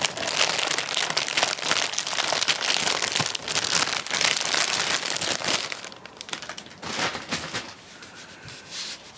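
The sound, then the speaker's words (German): Loud crinkling of a plastic bag being handled and pulled open to unpack an Echo 4 device from its cardboard box, with dense crackling bursts that ease off toward the end; no one speaks. “In meinem Fall in einer Tüte, die ich jetzt erstmal hier irgendwie”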